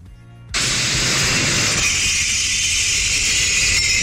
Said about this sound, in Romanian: Da, este vorba despre un sunet, salutul de recunoaștere al uh, tuturor consumatorilor, anume acel zângănit de sticle care te întâmpină da. și atunci când ieși din casă să duci atunci, gunoiul, exact.